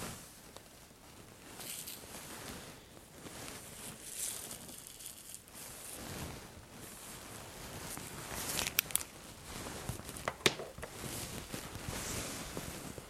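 Continuous crinkling and rustling of a doctor's plastic gloves and stiff coat during a medical examination, with sharper crackles and brief snaps scattered throughout as the material shifts and bends. No one speaks.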